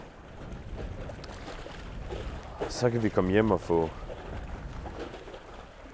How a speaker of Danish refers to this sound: Og nu skal vi retur til Nykøbing, inden det bliver mørkt. Der er stadigvæk lidt, lidt god vind.